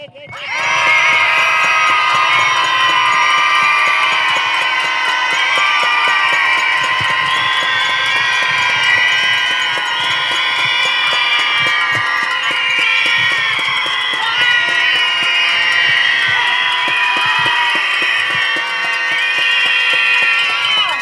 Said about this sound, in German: Dafür schreien wir unsere Wut heraus. Jetzt!